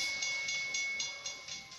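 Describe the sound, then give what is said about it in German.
A video game train in the Gem Grab (Juwelenjagd) game mode rushes past with a steady high whine over bright, hissing noise, pulsing in a quick regular clatter. No one speaks. “Oh mein Gott, Mann, dieser blöde Zug, also in der Juwelenjagd.”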